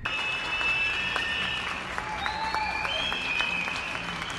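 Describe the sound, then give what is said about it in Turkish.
Steady, dense applause from many people in Istanbul clapping from balconies and windows at 21:00 for health workers, with a few whistles rising above the clapping. “İstanbullular saatler 21.00'a geldiğinde balkon ve pencerelerdeydi. Sağlık çalışanlarını alkışladılar”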